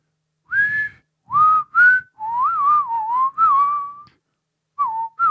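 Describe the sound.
Someone tries to whistle a short melody alone, in a few clear phrases of sliding pitch separated by brief pauses, with a slightly breathy, unsteady tone.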